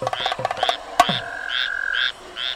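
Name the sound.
toad croaking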